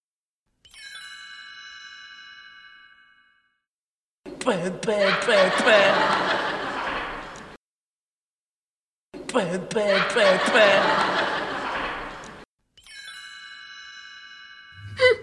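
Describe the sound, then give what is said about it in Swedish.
A woman holding dice in front of her mouth makes quick, repeated spitting-like "tvi" puffs over them before rolling, in two noisy bursts, fairly loud. A brief chiming tone comes before and after. “Hon har dem framför munnen och så säger hon Twi, hon säger tvi, tvi, tvi liksom.”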